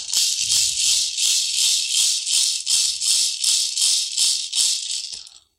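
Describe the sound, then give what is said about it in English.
A gourd rattle, a gourd cut with a hacksaw and filled with seeds from different plants, including mountain laurel seeds, shaken in a steady, even rhythm: about a dozen bright, hissing rattles of seeds, loud and crisp, with no talking, ending abruptly after a few seconds. “And we're going to shape them into the gourd rattles.”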